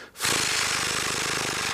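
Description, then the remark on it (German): A voice imitates the wing buzz of a hummingbird hovering in the air: a loud, breathy, rapidly fluttering hum held steady for about a second and a half, with no talking over it. “ne, dieses, dieses, dieses Geräusch, dieses Geräusch das so, dieses, dieses fast, das ist fast ein Ton, aber so schnell wie so ein Ventilator”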